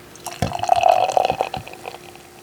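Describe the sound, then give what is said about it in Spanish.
A bottle of Live Oak Hefeweizen beer is opened with a short sharp crack, then poured in a steady gurgling stream for about a second, the pitch of the liquid rising as the glass fills. No voices. “Qué rico se escucha. Una cervecita.”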